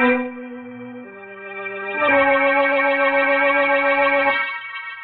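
A person whistles a tune of three sustained notes, dipping lower then rising to a long, louder held note, heard alone somewhere in a building at about 4:30 in the morning, with no talking.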